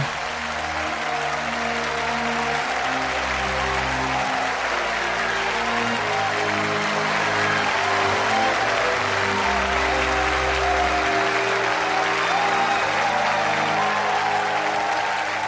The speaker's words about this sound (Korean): 공연 보고 나서는 박수 치는 게 예의야